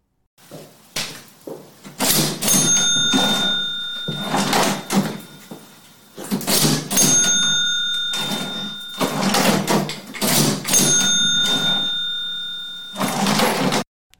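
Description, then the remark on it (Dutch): A cash register rings up three times in a row, each round a clatter of keys and a sliding drawer topped by a bright, lingering bell chime, loud with no talking. “Ik hoorde een rinkelende kassa.”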